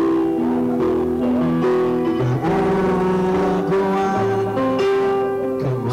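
A song plays continuously at a steady, full volume, with sustained melodic lines over a warm, dense instrumental backing and no talking over it.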